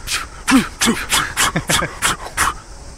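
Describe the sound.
A voice imitates the heavy, rapid breathing of sprinting athletes: about eight quick, loud, breathy huffs and gasps in a steady panting rhythm, some with a voiced strain.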